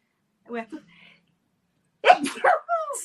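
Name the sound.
sneeze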